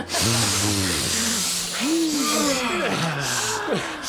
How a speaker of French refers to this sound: Vite Sniffons tous de la coque